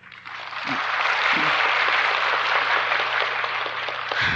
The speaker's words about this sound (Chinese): 谢谢，偶尔也应该拍手，让师傅休息一下，这很有用。